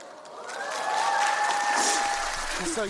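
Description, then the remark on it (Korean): An audience claps steadily for about three seconds to greet a guest on the radio show 오태훈의 시사본부, a dense, even patter of hands that swells slightly in the middle. A faint sustained vocal tone rides underneath, and a voice briefly emerges at the end. “네, 박수 속에서 인사를 드리게 됐습니다.”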